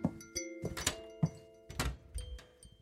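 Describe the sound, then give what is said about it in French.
A door opens with a series of heavy wooden thunks and rattles spread over a few seconds, a faint ringing tone lingering underneath, as a medium lets his clients out; no one speaks. “Il refuse le paiement de ses clients et ouvre la porte sans croiser le regard de Thibault”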